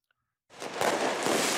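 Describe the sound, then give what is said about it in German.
After a brief silence, loud New Year's Eve firecrackers in Berlin-Neukölln suddenly erupt into a dense, continuous crackling roar, with a couple of sharper bangs standing out. No voices are heard. “Hier wünschen sich viele der Helfer weniger Böller an Silvester, damit solche Szenen wie vergangene Nacht in Neukölln weniger werden.”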